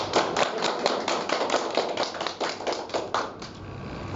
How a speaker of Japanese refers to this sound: 拍手をお願いします